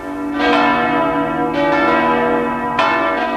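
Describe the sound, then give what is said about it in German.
The bells of St. Nicholas Church in Leipzig ring loudly at midnight to start the new year, three broad strikes at roughly even intervals, each blooming into a rich, sustained hum of overlapping tones that never fully fades. “Mit den Glocken der Leipziger Nikolaikirche beginnt ein neues Jahr beginnt ein neues Radioprogramm.”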